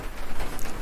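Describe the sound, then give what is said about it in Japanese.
Steady light rain patters on the thin roof of a garden room during a thunderstorm, a dense, even spray of small, light taps with slight swells in loudness and no voices. “このね軽い音でペタペタ言ってるのはあのガーデンルームのね天井に落ちる雨音です”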